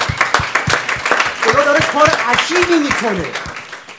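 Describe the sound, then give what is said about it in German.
An audience at a Christian gathering applauds to celebrate and glorify the Lord, with dense, steady clapping throughout, while voices call out and cheer over it, some rising in pitch. “Genau, das sollten wir unseren, unseren Herr feiern und ihn durch Applaus genau, verherrlichen.”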